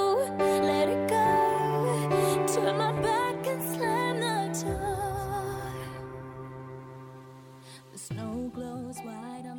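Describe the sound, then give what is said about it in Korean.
A rock version of a pop song, a film's theme song, plays continuously with a singer's melodic English vocals over sustained chords and steady band backing, loud and full, briefly thinning near the end before the band returns. “락 버전이라고 제가 아까 말씀드렸죠.”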